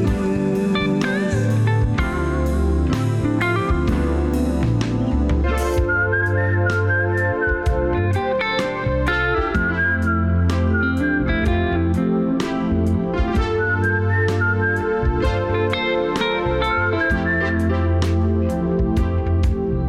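A whistled melody glides over a full band backing of steady bass, drums and chords, its clear, high tune rising and falling in smooth phrases throughout.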